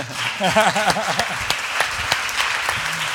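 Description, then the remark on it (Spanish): An audience applauds steadily, a dense patter of many hands clapping at moderate volume, with a few sharper individual claps standing out and faint voices and laughter mixed in. “Un y aplauso mínimo, ¿no?”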